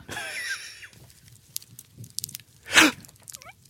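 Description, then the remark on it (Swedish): An imitation of crackling fire: a tonal, voice-like opening gives way to scattered sharp clicks and pops, one louder crunchy burst, and a few quick chirps, all fairly soft. “För de som har lyssnat på våran podd så vet de att det här är det eldljudet som skapades, men det är inte eld.”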